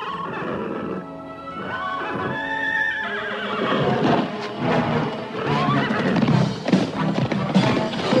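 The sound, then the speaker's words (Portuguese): The horse Cavalo de Fogo, from the animated series of that name, whinnies loudly, its cry rising and falling, while hooves clip-clop and busy sounds continue around it, with no one speaking. “Oi, cavalo de fogo! Senti saudade.”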